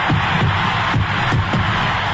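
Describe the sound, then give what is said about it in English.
A huge baseball stadium crowd roars continuously and loudly as fireworks go off after Henry Aaron's 715th home run sets the all-time record, a dense wall of cheering that holds steady throughout, with a slightly muffled, old-broadcast quality and no one speaking over it. “His teammates are at home plate, and listen to this crowd.”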